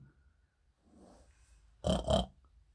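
A pig grunts twice in quick succession, loud, following a stretch of faint, low snuffling sounds. No one speaks.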